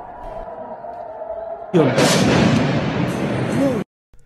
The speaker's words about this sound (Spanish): En cámara lenta podemos observar el destello del objeto y casi simultáneamente la explosión en la zona alta del edificio.